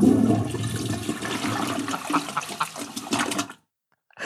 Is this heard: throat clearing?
no